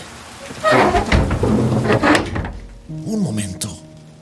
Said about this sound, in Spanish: La tormenta no se detiene. Y parece que ahora es más fuerte. ¡Qué desastre! Todo mojado. Y eso que estoy en el mejor refugio de este bosque.